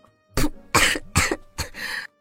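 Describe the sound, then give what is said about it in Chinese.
A sputtering fit of coughing after choking on milk sprayed from the mouth, four harsh bursts in quick succession with the last one drawn out and raspy, loud and alone with no talking. “一口牛奶从对面的人嘴里很脏的喷了出来，然后开始咳嗽了起来。”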